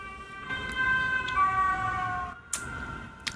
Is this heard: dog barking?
no